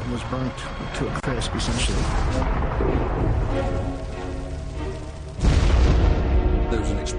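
A sudden, heavy explosion boom of an airship that crashed into a windmill and burst into flames one April morning in 1897, erupting near the end through several seconds of dense, rumbling noise and leaving a loud, deep roar that carries on afterward; the ground shook.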